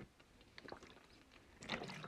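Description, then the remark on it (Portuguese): A quiet sip of aguardente: a few short wet slurping noises, then a longer swallowing gulp near the end, with no talking. “Logo depois de tomar um gol da minha água aguardente.”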